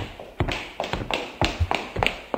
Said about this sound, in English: The noise you guys make with your heels. Yes, heels. Are you wearing high heels?